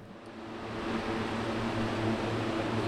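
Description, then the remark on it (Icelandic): Four large industrial fans in a drying chamber roar steadily, each blowing 7,000 cubic metres of air per hour, a constant rush of blown air with a low droning hum underneath, loud with no pauses or talking. “Þannig er þetta þurka allar er að þurka það það eru fjóra viftur hver, hver vift er að blása 7000 rúmmetrum á, á, á klukkustund þannig að það er alveg hýfandi rókarninni”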